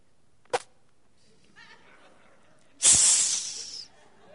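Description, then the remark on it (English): A brief click, then a sharp, loud sizzling hiss of someone spitting on a hot potbelly stove in a church during a moment of silence, fading over about a second. “That was somebody spitting on the potbelly stove.”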